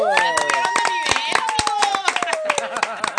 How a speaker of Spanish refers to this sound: Pero eh, el invitado, pues como les comento, productor y editor de el grupo Televisa. ¡Ah, oh, ¡Aplauso!